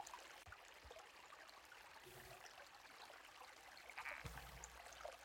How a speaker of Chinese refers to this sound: 今天的流水声还有蛙鸣是上次去溪头的时候录的，那我想说今天把它拿出来用一下，不然感觉不知道会尘封到什么时候。